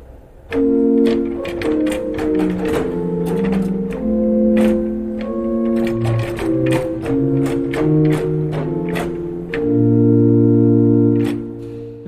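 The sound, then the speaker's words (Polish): A church pipe organ in Kazimierz, heard from up at the organ console, plays a fragment of an anonymous piece in sustained chords, its keyboard action clicking and clacking sharply and irregularly with each key change, the mechanical taps clearly audible over the loud held tones. “Zobaczycie Państwo, jak to brzmi na górze, jak to jest słyszalna praca klawiatury.”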